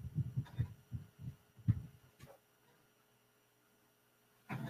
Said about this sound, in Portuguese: Deixa eu virar esse ventilador que ele tá bem na minha cara, peraí.